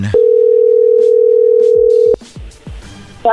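A telephone ringing tone as a call is placed: one loud, steady, mid-pitched beep held for about two seconds, then cut off abruptly, leaving muffled background noise and faint voices.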